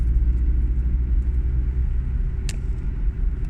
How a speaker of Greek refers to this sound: Πάλι μέσα από το αυτοκίνητο κλασικά Πηγαίνω προς το σπίτι από τη δουλειά